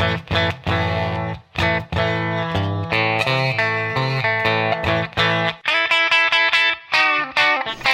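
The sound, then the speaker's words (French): A clean electric guitar plays a short riff on its own, fairly loud: repeated low chords, then a run of brighter, higher plucked notes near the end. “Donc, voilà, là, voilà un peu le son clean de référence.”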